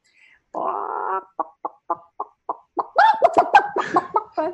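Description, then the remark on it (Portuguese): A person imitates a startled chicken, starting with a drawn-out squawk, then a run of short, evenly spaced clucks that build into a loud, frantic burst of squawking, clear. “Eu falei, agora eu vou imitar galinha assustando.”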